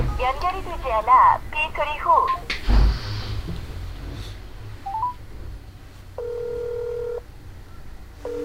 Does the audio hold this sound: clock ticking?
no